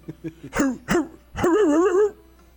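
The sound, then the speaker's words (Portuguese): A person imitates an old dog's bark: a few soft clicks, two short hoarse woofs, then a longer wavering, raspy howl-like bark, all vocalized without any spoken words. “Era o cachorro mais de idade já.”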